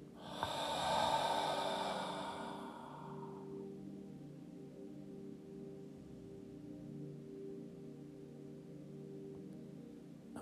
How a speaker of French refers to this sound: Inspiration, contraction, expiration, autograndissement.